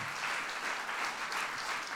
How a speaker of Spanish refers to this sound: Dele un aplauso al Señor en esta hora.